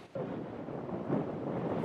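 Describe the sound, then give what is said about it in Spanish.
A strong, steady roar of wind on the central and northern California coast buffets the microphone, with gusts of more than 35 miles per hour. The sound rumbles low and swells louder in gusts, with no voices present. “En estos momentos ya ha comenzado a aumentar la fuerza de las olas, pero lo que es evidente es el viento, con ráfagas de más de 35 millas por hora.”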